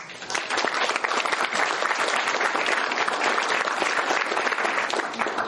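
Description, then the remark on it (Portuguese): Sustained applause from an audience, a dense, steady crackle of many hands clapping at even loudness throughout, with no pauses or voices standing out. “Eu gostaria de uma salva de palmas.”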